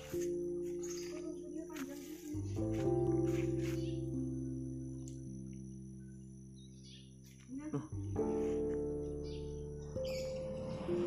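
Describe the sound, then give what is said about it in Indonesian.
Birds chirping in short, scattered high tweets over a steady, loud low droning hum that shifts pitch a few times. “Kenapa? Burung.”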